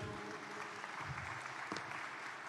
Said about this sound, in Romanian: Mulțumesc foarte mult! Aplauze pentru domnul Negrescu.